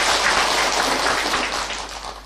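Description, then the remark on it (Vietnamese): A crowd at a Buddhist dharma talk claps steadily, a dense wash of many hands, holding loud and even before easing slightly toward the end. No one speaks over it. “À, thì chúng ta cho một tràng pháo tay vui vẻ xem nào”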